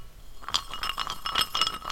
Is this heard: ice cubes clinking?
yes